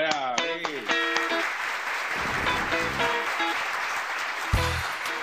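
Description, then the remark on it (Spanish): Steady applause from an audience welcoming guest Ricardo Mendoza, a dense continuous clatter of clapping with a few cheers and whoops rising over it, holding loud for several seconds. “Yo creo que es momento de presentar al invitado de hoy, es un Así que recibamos con un fuerte aplauso, mi hermano, al crack Ricardo Mendoza.”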